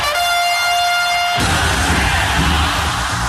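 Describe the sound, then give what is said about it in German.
A loud, steady goal horn blares for over a second, then cuts into the dense, sustained roar of the ice hockey crowd at the rink in Lausanne erupting after a shot into the empty net seals the win against Fribourg. “Patinoir explodiert hier in Lausanne.”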